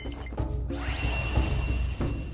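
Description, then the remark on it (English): Magic bells are shaken by the monkey Wukong with a bright jingling clatter, ringing tones hanging over a rumbling base while a shimmering sweep rises through the middle. It stays steady and fairly loud for about two seconds, with no voices. “The monkey shook the bells.”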